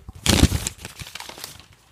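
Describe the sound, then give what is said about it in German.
A handwritten paper list of topics is crinkled and rustled, with one loud crackling burst and then softer, scattered rustles that fade out. No one is speaking. “Ich mache kurz so ein Geräusch mit der Liste.”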